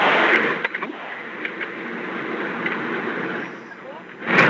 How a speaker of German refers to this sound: Oh, da höre ich jemanden aber leider sehr laut. Da hört man zu viel Auto. Äh, am besten nochmal gucken, umstellen, Headset ändern, Lautsprecher ausmachen und so weiter.